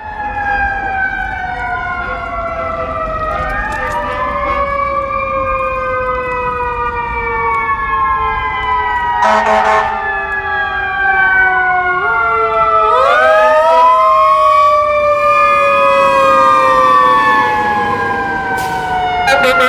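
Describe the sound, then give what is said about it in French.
Emergency vehicle sirens wail loudly in a New York street, several rising and falling tones overlapping and sweeping up and down continuously over a low rumble of traffic. “sais pas si vous avez reconnu le jappement de cet animal domestique fort connu, le chien électronique.”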